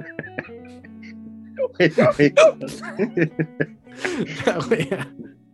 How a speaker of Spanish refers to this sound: … está con hipo